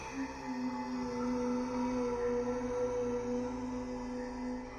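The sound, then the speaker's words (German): Low, eerie droning tones hum steadily with layered overtones, holding without a break for about five seconds at a moderate level, with no voices present. “Am unheimlichsten waren die geisterhaften Brummtöne, die das Haus von allen Seiten überfielen.”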